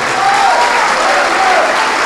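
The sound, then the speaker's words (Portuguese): Sustained audience applause in Jassanã, São Paulo, given in praise of a sermon's word, a dense and steady wash of many hands clapping at a fairly loud, even level throughout, with no distinct individual claps standing out and no voices on top. “Então vamos desocupar as mãos e dar para esta palavra a melhor salva de palmas que já se ouviu no Jassanã”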